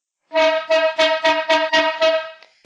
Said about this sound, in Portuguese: Olha, a corneta voltou, a corneta aleatória do episódio de número 8.